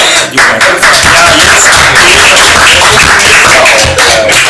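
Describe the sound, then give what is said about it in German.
A burst of canned applause, a dense wash of many hands clapping, loud and steady for a few seconds with no voices on top. “Da muss ich ja Applaus. Künstlichen Applaus reinstellen.”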